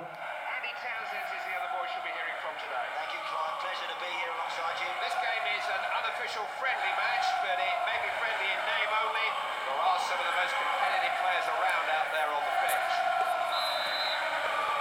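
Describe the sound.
A referee's whistle starts a football match in a mobile video game, sounding once, short and fairly faint, near the end over the steady roar of a stadium crowd and commentary-like voices.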